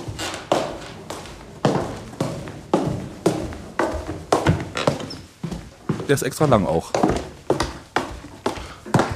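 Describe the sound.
Adilette slide sandals slap against the floor in a steady walking rhythm as the wearer walks from the balcony all the way to the bedroom. Each step is a sharp flat smack, roughly a dozen in a row, while a person talks briefly over them.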